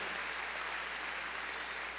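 An audience claps loudly and steadily for the Lord during a sermon, a dense wash of hand claps that holds at full strength from start to finish with no voices heard.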